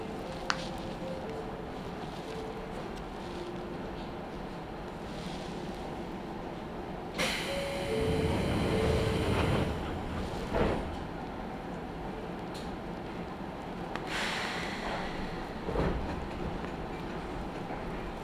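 An electric commuter train of the Izuhakone Railway Daiyūzan Line, bound for Odawara, runs from Daiyūzan toward Anabe with a steady rumble, rhythmic wheel clacks and rattling, swelling louder midway with a brief hiss and whining tones, heard from inside the carriage.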